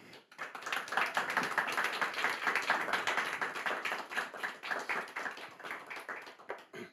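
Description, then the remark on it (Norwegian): Sustained audience applause at Riksdagen welcoming author Nils Fredrik Dahl, dense overlapping claps from a crowd at steady volume for several seconds before beginning to thin out near the end. “Eh, og nå har vi fått Nils Fredrik Dahl her til Riksdagen, så jeg håper vi kan gi han en, en stor applaus.”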